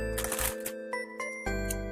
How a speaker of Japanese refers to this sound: 今、袋を開けました。えー、袋にはですね、本格的なフランスパンに北海道産フレッシュバターを塗り、グラニュー糖をつけましたと、えー、書かれてます。